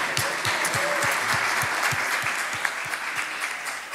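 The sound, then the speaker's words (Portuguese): An audience at a streamed church service breaks into sustained applause, dense clapping from many hands that stays steady and fairly loud for the full length, with no voices standing out. “Vamos dar um salto de palmas aí, ó.”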